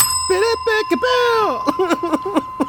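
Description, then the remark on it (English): A bell rings with a steady, bright metallic tone that hangs on through the whole moment, while a voice talks and vocalizes over it. “yeah, I'm just gonna just gonna bell that.”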